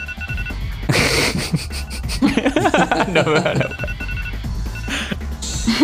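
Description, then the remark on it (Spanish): A phone alarm rings in repeated electronic bursts, fairly loud, while a person laughs and talks briefly over it. “Me acaba de sonar la alarma.”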